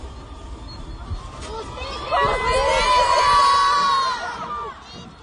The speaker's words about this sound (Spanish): Las mujeres gritan, se enojan, se les llenan los ojos de lágrimas. Estoy muy cerca del contingente de los familiares de las desaparecidas, justo en la parte superior, en los pocos escalones de esta glorieta que se ha vuelto un símbolo de lucha